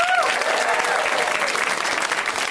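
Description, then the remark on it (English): Steady, dense audience applause at a live comedy show, for all the comics who performed that night, fills the whole stretch, a loud wash of many hands clapping, with a brief whistle-like tone near the start. “Let's hear for all the comics you saw tonight.”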